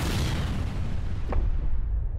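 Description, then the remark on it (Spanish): A missile explosion at night, from missiles fired by an aircraft at a UFO, rumbles loudly: a broad roaring blast whose hiss slowly fades while a deep, heavy low-end rumble keeps churning throughout. No voices are heard. “La explosión iluminó la noche y por un momento todo quedó en silencio.”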